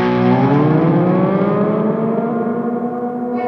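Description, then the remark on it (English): A sustained, harmonically rich guitar tone with a pitch-shifter effect from a Super Shifter pedal on a pedal board, its layered tones sliding and shifting steadily over a few seconds, loud and continuous with no talking. “so super shifter always there so I can do like uh throw on a couple effects here”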